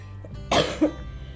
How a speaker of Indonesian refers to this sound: sorry masih batuk